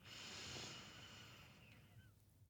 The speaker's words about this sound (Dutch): Neem dan nog een diepe ademhaling in via je neus